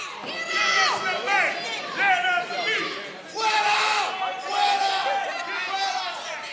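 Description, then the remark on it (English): A crowd at a council meeting, many overlapping voices shouting and screaming at once while pointing at a man who has just sat down, loud and agitated, rising in waves of yelling with no clear words standing out. “He looks out at the crowd as people begin pointing at him and screaming.”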